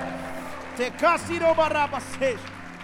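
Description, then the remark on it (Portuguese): A crowd cheers and shouts, several voices rising in loud bursts over a steady wash of clapping and general noise, as people shout to the Lord and applaud at a preacher's call. “Se você crê nisso, dê um brado ao Senhor neste lugar e aplaudo.”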